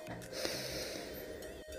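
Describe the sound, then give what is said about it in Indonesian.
A slow, deep inhalation drawn in steadily through the nose for nearly two seconds, breathy, with no talking over it, taken as part of a guided breathing exercise. “Coba sekarang kita ambil nafas secara perlahan.”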